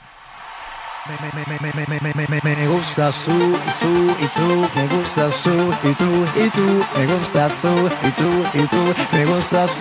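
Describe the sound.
A reggaeton song plays up close and loud, a steady bouncing beat under a singer repeating a short chant-like refrain, after a brief quieter intro.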